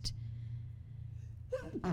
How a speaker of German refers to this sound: Gesundheit.